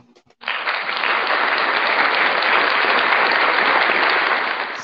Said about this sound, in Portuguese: salva de palmas aí para a turma toda.